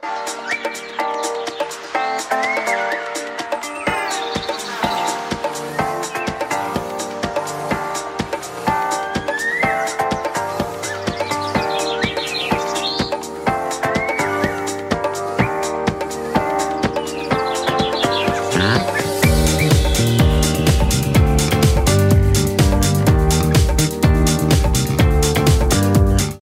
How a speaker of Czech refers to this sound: že je venku už hezký počasí a ta písnička zní hodně baleársky pro mě, až jakoby kýčovitě, disco slash houseově a uh, Eh, vlastně docela rád ji poslouchám, když je venku hezky a proto si ji poslechnete teďka i vy.